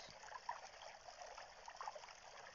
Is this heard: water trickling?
yes